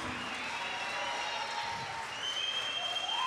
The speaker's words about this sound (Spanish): Denle un maldito aplauso como se merece a Sara Valenzuela, por favor.